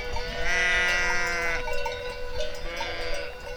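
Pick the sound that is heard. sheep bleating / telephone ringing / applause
sheep bleating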